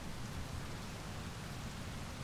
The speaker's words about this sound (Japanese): 雨の勢いは猛烈で、地面から跳ね返るそれは、外にいる者の足元を容赦なく濡らした。